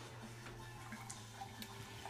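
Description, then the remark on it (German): A steady, hissing rush of liquid as someone pours himself a glass, running continuously with faint splashes and small trickling accents, no voices over it. “Übrigens, was ihr gerade dieses Rauschen hört. Sonnengott schenkt sich gerade ein Glas ein.”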